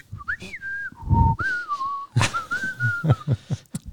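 A man plays a replica bone flute, a short, breathy melody of a few sustained, wavering high notes that slide between pitches, with soft thumps and knocks underneath, fairly loud.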